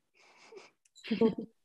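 A tomcat cries out: a soft, breathy rasp, a brief pause, then a short, louder, wavering yowl lasting about half a second.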